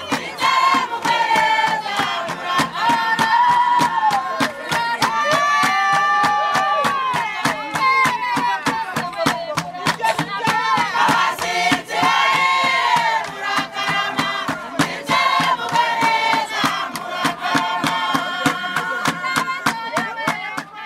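Rwandan traditional dance music: steady, rapid drumbeats drive a loud group of voices chanting and singing in rising and falling lines, with shouts and handclaps joining throughout.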